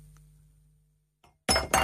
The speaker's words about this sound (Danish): er god værkstedshumor, at man lige vælter glas rosé